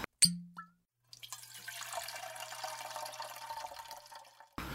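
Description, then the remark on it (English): A single sharp glassy clink, then water pours steadily into a glass for about three seconds, fairly quiet, with no talking. “Let's pour one out.”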